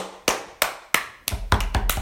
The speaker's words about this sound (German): Okay, wir applaudieren zu viel.